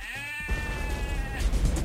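A single sheep bleats loudly, a wavering, nasal call lasting over a second before trailing off into a rustling, noisy background.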